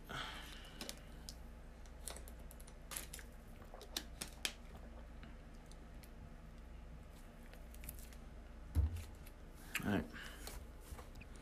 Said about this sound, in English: All right. I'm gonna take a little drink of water real quick.